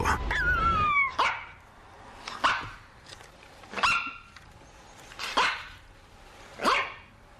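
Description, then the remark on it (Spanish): A dog gives a high whine, then barks five times at steady, evenly spaced intervals, loud against a quiet background, with no talking. “Bueno, es un ser humano y un perro.”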